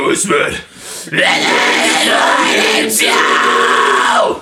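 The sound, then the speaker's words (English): Loud harsh vocal fry growls, a higher raspy scream layered over a lower guttural one, held in two long sustained bursts with a brief breath between. “I'll jump into my higher fry, and then you can do the lower one, and we'll see how that sounds because I'm really excited to see what that's like.”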